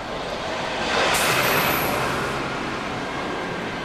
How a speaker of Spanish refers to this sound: Los camiones de San Ángel a la Jusco en la madrugada se inventaron para recordar la vida y volver a apreciarla. Van más rápido que los autos, se saltan todos los topes de los paseos del Pedregal, circulan furiosos.